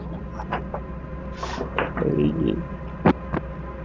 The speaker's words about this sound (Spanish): las pulsaciones. las pulsaciones que previamente te he descrito.